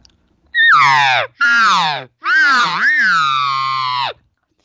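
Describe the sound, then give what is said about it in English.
A voice imitates a demanding cow call three times in quick succession: loud, strained, nasal bleats that slide downward in pitch, the third longest with a wavering bend, alone. It imitates the urgent call a cow uses to tell a bull to come over. “That is a demanding sound that a cow will use urgently. telling that bull to come over here now.”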